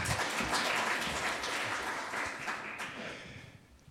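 An audience applauds in a dense, steady wash of many hands clapping at once, holding fairly loud for a few seconds before tapering off at the end.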